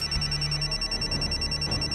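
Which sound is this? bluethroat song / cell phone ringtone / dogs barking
cell phone ringtone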